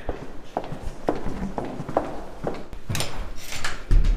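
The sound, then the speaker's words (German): Steady footsteps on a hard floor, about five or six evenly paced steps, followed by some shuffling and a dull thump at the end, as people walk back to an office in a research institute. “Dann lass uns zurückgehen zu deinem Büro.”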